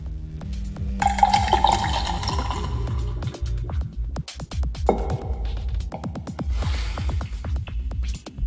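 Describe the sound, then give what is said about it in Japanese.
Beer pours into a glass for a Thursday-night toast, with splashing, glugging and a hiss of foam that shifts in pitch as the glass fills. No voices are heard. “ビール片手にシカラジオ。木曜日の夜を乾杯から始めます。”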